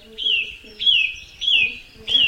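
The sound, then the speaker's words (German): A loud song thrush, a small brown bird with a spotted breast, sings, repeating a bright, clear whistled phrase four times in a steady rhythm with short pauses between, each note sliding slightly downward. No one speaks. “So ein schöner, kleiner, brauner Vogel, ein bisschen kleiner als die Amsel gefleckte Brust, braunes Obergefieder, kein besonders markantes Gesicht, große Knopfaugen und eben diesen schönen, lautstarken Gesang.”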